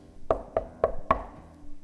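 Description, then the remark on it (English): Four steady knocks on a wooden door, evenly paced, each with a hollow resonant thud, followed by a short quiet pause. “God's knocking.”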